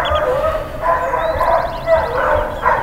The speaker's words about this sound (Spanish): Por ahí escuchan perros y demás, porque así es un poco también este mundo desde donde yo les estoy grabando. Un poco desde el campo urbano. Así que llegué a Xochimilco, a la parte poquito más lejana de dónde está el turismo más común.